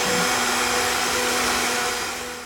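A blender mixes a smoothie with a couple of tablespoons of seeds added, running steadily at high speed, a loud, even motor whir with a hissing rush of noise and a low hum, easing off slightly near the end. No one speaks.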